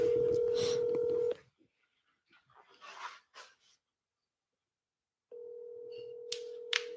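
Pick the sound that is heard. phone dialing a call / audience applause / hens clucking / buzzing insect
phone dialing a call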